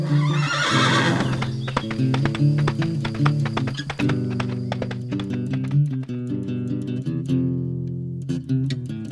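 A horse gives a loud whinny at the start, followed by steady rhythmic clip-clopping of hooves that carries on throughout, over a sustained tonal musical backdrop.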